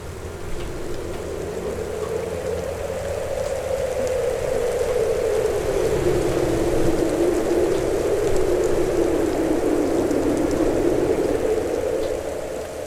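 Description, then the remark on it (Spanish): Heavy rain pours steadily outside with blowing wind, a dense continuous hiss and patter that holds at the same loud level throughout, with no voices. “La luz no era muy potente y el viento y la lluvia afuera soplaban con más fuerzas.”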